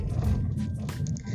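Steady low rumble of a car heard from inside the cabin, loud and continuous, with brief rattling hisses rising over it now and then.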